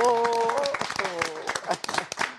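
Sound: applause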